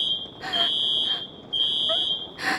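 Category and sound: signal or alarm, fire alarm going off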